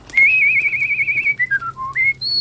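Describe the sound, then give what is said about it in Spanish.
A soldier whistles a short, wavering melody, starting with a long trilled note, then dipping through a few lower notes before jumping to a high final tone. No one speaks. “Pero algo sucedió en verdad muy extraño. Silbaba como”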